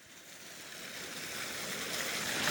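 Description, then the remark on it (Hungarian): Steady, hissy rush of fountain water splashing continuously, slowly swelling a little louder, with no voices over it. The Neptune Fountain, heard from an upper garden terrace on a cool but sunny day. “Természetesen vízcsobogás a Neptun útnál állunk Schwarzkopf lett felső teraszán.”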